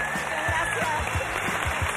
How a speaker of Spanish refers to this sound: te llevas también el aplauso aquí de todos tus paisanos. Gracias.